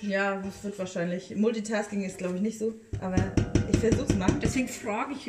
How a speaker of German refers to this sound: Ich, habe nur gedacht, weil ähm, du jetzt rührst, ähm, ob du das so.